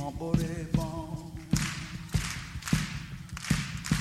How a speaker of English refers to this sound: Mama, listen to my heartbeat.